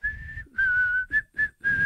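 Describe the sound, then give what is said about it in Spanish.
A clear whistled tune from the hospital scene of a Quentin Tarantino film, whistled by a woman: sustained notes, a long held tone, another long one, then two short notes and a final held note, with brief pauses between phrases and no talking. “Y tiene una de las escenas más míticas del cine de Tarantino, que es ella en el hospital silbando.”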